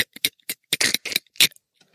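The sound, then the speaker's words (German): A voice imitates the neck-breaking sound heard when caught in a video game, with a rapid, irregular string of sharp, crackling mouth clicks and snaps, about a dozen bursts in two seconds. It is fairly loud, then trails off into faint ticks. “Aber ich, ich, ich kann auf jeden Fall noch das Geräusch nachmachen von ähm, dem Genickbruch.”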